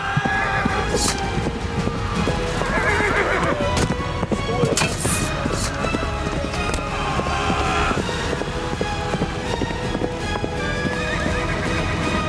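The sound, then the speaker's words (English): Many cavalry horses of the Light Brigade gallop in pursuit of fleeing Russian forces toward the Chernaya River, a dense, continuous rumble of hoofbeats, loud, with sharp whinnies and neighs breaking through several times over the thundering charge. “the Cossacks opened fire on their own side, spreading further panic through the Russian forces, who turned and fled for the Chernaya River, what was left of the Light Brigade in hot pursuit.”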